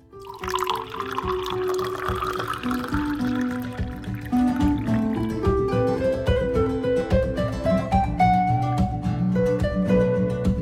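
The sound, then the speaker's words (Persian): Water is poured steadily into a glass for drinking, the splashing tone climbing gradually in pitch as the glass fills over about ten seconds, with no talking. “اوه دهنم خشک شد بذار یه لیوان آب بخورم”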